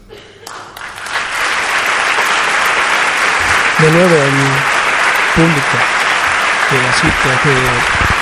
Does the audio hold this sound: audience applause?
yes